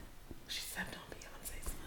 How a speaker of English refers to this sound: I love how you whispering because it's like.